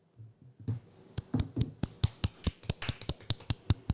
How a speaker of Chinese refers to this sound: 感觉此处应该响起掌声。